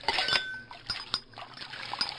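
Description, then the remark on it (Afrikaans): A plate being washed in a sink after a meal as Mani Mier finishes eating: running water trickles and splashes while a dish clinks sharply against the basin several times, fairly quiet, with no voices. “Eet gou klaar en was sy bord in die wasbak.”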